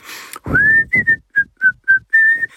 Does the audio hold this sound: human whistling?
yes